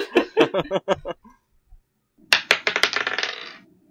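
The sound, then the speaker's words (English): Dice clatter across a hard tabletop in two bursts during a persuasion roll in a tabletop role-playing game, totalling 18: a quick run of sharp clicks, a brief pause, then a longer rattling tumble that gradually settles. Fairly loud, with no voices. “So I'm just afraid to let go of my dice because I know i are rolling so low.”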